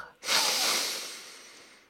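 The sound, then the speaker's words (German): A single deep, breathy exhale starts abruptly and trails off slowly over about a second and a half, airy and hissing, with no voices. “Er atmete dreimal tief durch.”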